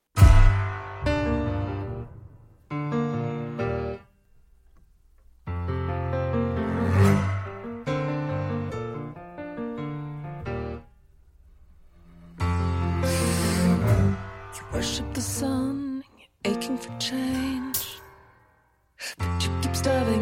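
A brooding song opens with dense, heavy sections separated by abrupt near-silent pauses, deep bass underneath and bright crashing highs in the later bursts; no one speaks over it.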